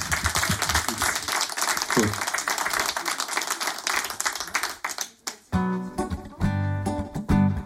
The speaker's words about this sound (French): on applaudit bien fort.